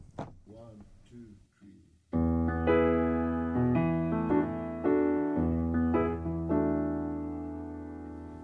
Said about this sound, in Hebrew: אני משמיע עוד שיר מאלבום חדש שלו, שיצא אמנם לפני שנתיים, אבל זה עדיין חדש.